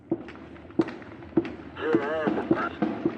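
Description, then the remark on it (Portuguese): A steady series of about seven sharp gunshots cracks out at regular half-second intervals, fairly loud, while a voice briefly shouts or talks in the middle of the volley, during a shootout between police and drug traffickers at Morro da Serrinha in the north zone of Rio de Janeiro, Brazil. “Os tiros foram ouvidos de dentro da comunidade”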